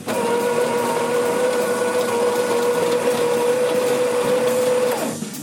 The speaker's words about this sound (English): I mean, you know, I love opening a bag and smelling fresh coffee beans, and I love grinding them to perfection.